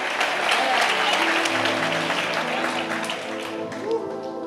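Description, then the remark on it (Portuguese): A church audience applauds loudly and steadily for God, a dense wash of many hands clapping together, with a faint tonal undertone of voices or music sustained beneath the applause throughout. “Se for para Ele, aplauda mais forte, irmão.”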